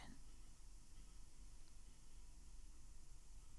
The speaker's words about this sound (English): Did you hear that? You should you should be able to hear a little bit of the hissing of my radiators. Uh, my radiators are still on, still plugging away, even though it is about a week away from May which is fine.